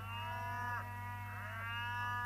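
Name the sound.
cow mooing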